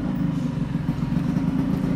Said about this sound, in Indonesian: oh motornya gaduh juga nih